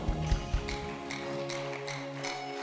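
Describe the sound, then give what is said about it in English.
An audience claps as a clap offering to celebrate the Lord, in a steady, even rhythm, about two or three claps per second, over sustained organ-like tones, with a few dull thumps at the start and no talking. “Somebody celebrate the Lord with a clap offering.”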